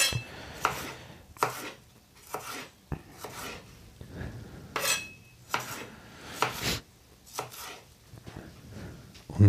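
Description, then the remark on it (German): A knife chops red bell pepper into strips on a cutting board, with about a dozen crisp, uneven thuds and short slicing rasps repeating at a steady working pace, and no one talking. “So, jetzt kommt meine rote Paprika. Auch wieder Streifen.”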